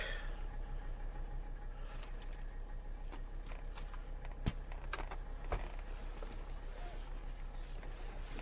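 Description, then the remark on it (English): A car engine runs steadily as heard from inside the cabin, a constant low drone and rumble, with a couple of brief sharp clicks partway through and no talking. “car seemed a lot noisier than usual.”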